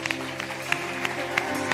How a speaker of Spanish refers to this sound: Si lo hiciste de corazón, dale un fuerte aplauso a Jesús